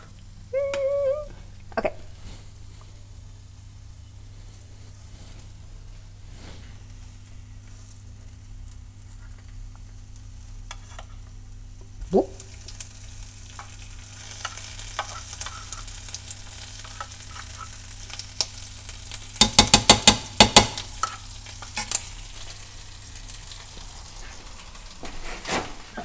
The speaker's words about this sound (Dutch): Oh, dat uh, spettert nu wel, omdat het natuurlijk eh, gemengd wordt met vochtige spul. Geen Ik ga heel gentle roeren. Mixen of whatever.